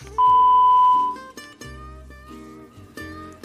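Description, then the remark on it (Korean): A single loud, steady electronic beep, the Korean phone voicemail (Sorisaem) tone after an unanswered call, holds for about a second, then cuts off into quieter, sustained tonal sounds with no one speaking. “연결이 되지 않아 B 소리 후 어. 소리샘으로 연결되오며”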